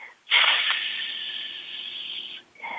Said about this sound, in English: Move it way out, and so that you feel the your abdomen, your diaphragm is hard, and then move it in, and then the breath comes out through your teeth. Make a hissing sound while you're practicing.